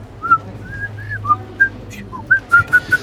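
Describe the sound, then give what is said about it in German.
A person whistles a short, uneven tune into a microphone pop filter, with breathy gaps and several notes that break off or come out weak, over a low steady hum. “Aber wenn ich jetzt im Studio wäre, was ja nicht so ist, dann müsste ich ja reinpfeifen in einen Popschutz. Und das ist echt schwierig, hör mal.”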